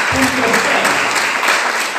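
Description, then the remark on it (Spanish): A crowd applauds steadily and loudly, a dense wash of many hands clapping throughout, with a brief voice sounding near the start. “¿Cuántos dicen gloria a Dios y le piden un fuerte aplauso a este”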